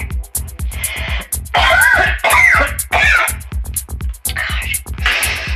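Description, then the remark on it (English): A harsh emphysema coughing fit of repeated raspy bursts, broken up by throaty clearing sounds, with no words spoken over it. “Goddamn cigarettes. I never should have stopped smoking this emphysema cough.”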